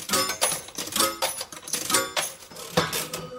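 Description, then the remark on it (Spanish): Coins being dropped as a radio host looks for a coin: a string of bright, ringing metallic clinks at an irregular pace, some with short shimmering tails, moderately loud with no talking. “A ver si tengo una moneda por aquí.”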